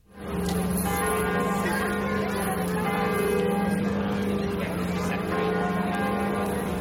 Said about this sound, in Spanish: Son las 12 del mediodía y así suenan las campanas de Notre Dame de París.